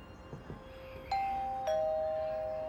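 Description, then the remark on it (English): A two-tone doorbell chime rings indoors at the front door of a single-story house in Roswell, New Mexico, on a cold, sunny day, the first bright tone sounding, then a slightly lower second tone joining and ringing on with a long, sustained decay over quiet surroundings. “The doorbell chimes right on time.”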